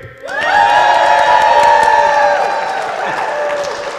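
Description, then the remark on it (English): A large crowd at the Blackleg Ranch in McKenzie, North Dakota, with a blizzard outside, erupts in loud cheering and applause right after a brief pause, with whoops and shouts layered over steady clapping that holds strong before easing slightly toward the end. “We are here at the Blackleg Ranch, McKenzie, North Dakota, and I just want to say the stu- it is a blizzard outside, the first big blizzard of the year, and we've got a great crowd. Let me, show, let me show you how big the crowd is.”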